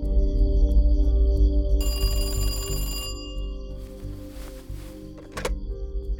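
A single bright, buzzy telephone ring at 10 p.m., lasting about a second, sounds clearly over a low, steady musical drone, followed by a soft rustle and a dull thunk.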